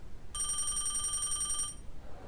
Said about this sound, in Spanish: He tomado la agenda y he empezado a llamar a los amigos. Algunos teléfonos suenan largamente y nadie contesta.